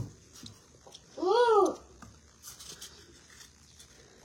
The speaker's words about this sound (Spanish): Es que me está diciendo mon. Pero no, sé. Pero no entiendo. No entiendo el lenguaje de bebés.